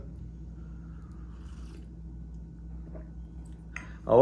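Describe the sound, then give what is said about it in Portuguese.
Faint clicks and a quick slurping sip of coffee over a steady low hum, ending in a brief louder burst of sound. “Golinho de café.”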